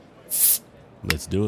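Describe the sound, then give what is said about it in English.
A bottle is popped open with a short, loud burst of fizzing hiss lasting about a quarter second, followed after a pause by a man speaking briefly. “Let's pop a bottle.”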